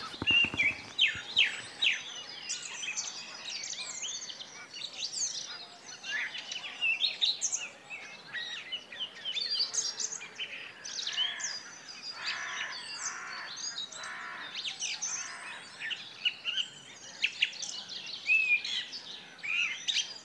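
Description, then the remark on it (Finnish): A dense spring dawn chorus at Hyvelänjärvi lake in Lohja, Finland, around six in the morning on a cool day: many birds singing and chirping at once, overlapping trills and whistles filling the air continuously, with no voices present. “ainakin yksi kevätaamu kannattaa valvoa lintujen konserttia kuunnellen”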